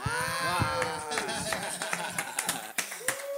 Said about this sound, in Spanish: hacer algo que pocas veces algo hago en este programa. Pararme a aplaudir.